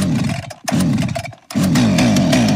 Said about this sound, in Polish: Po wprowadzeniu Lex Szyszko przez kolejne miesiące akompaniował nam w Polsce dźwięk piły mechanicznej.